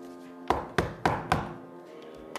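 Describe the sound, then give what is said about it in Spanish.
Four soft, hollow knocks on a wooden door on the floor above, in a quick, even rhythm, followed by quiet and one faint tap at the end. No voices. “Así pues, recordando lo que la patrona había dicho acerca de los cuidados prestados por aquel enfermo al obrero herido, me arrastré como pude hasta el piso superior y llamé débilmente a la puerta justo encima de la mía.”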